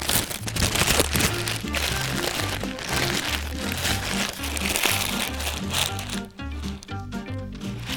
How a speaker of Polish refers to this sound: zawsze się znajdzie ktoś, kto tego batona nie będzie potrafił zjeść jak człowiek, tylko będzie musiał tym jebanym szelestem zagrać muzykę swojego ludu